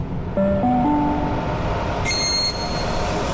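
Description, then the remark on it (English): A train bound for Sydney rumbles steadily at platform 18 of a station, a short rising three-note chime rings out early, then a brief high-pitched whine cuts in over the low, continuous noise. No one speaks. “First stop the train on platform first stop 18 goes to Sydney.”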